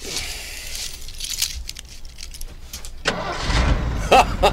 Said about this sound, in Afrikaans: Klim in en draai die sleutel. Laat ons hoor wat maak jou bakkie.